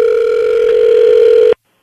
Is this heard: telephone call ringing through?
yes